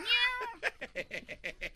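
A cat lets out one long, rising meow, followed by a quick series of short, rhythmic chirping mews, close and fairly loud with no one talking over it.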